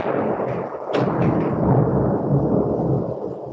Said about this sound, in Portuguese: Opa, tá, tá, tá, tá, tá, tá uma chuva grande aí, né? Tá uma chuva grande.